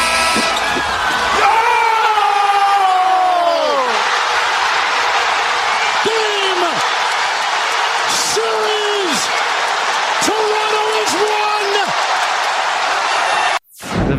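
A loud basketball arena crowd roars and cheers throughout after Leonard's buzzer-beater shot against Philadelphia. The buzzer sounds early as a horn-like tone, then the basketball thuds and bounces several times beneath the din before the sound cuts out abruptly.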